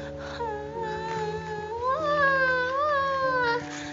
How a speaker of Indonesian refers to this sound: Suatu hari, bayi kecil merasa panas dan dia menangis.